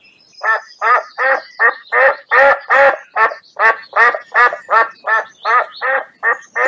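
A duck sitting on its eggs quacks loudly and steadily, a long run of about seventeen raspy, evenly spaced calls, with no voices or other sounds.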